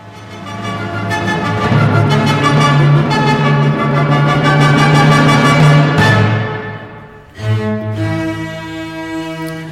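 A loud orchestral passage from Beethoven's Symphony No. 9, with full, sustained chords swelling across many instruments, briefly dropping away near the end before the ensemble surges back in. No voices.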